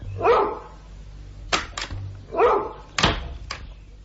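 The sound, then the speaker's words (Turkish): A dog tied to the leg of a bedstead barks twice, each bark followed by sharp knocking or thumping sounds, with no one speaking. “İşte köpek. Karyolanın ayağına bağlı.”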